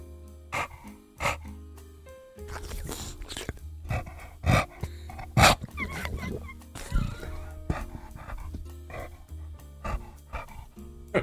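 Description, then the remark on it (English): A male dog named Steve breathes heavily, with wet, slobbery snorts and panting bursts coming in irregular puffs, plus some smacking mouth noises and brief sharp sniffs. “But He's a slobbery, heavy breathing boy.”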